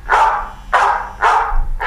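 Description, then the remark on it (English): One of six alarms set on a phone goes off as a dog-bark tone: four loud, evenly spaced barks about two-thirds of a second apart, each a short harsh burst, with no talking. “Hi, that's one of my alarms.”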